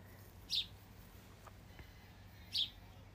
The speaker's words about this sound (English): I'm just listening to the birds before I have to shoot back into this meeting.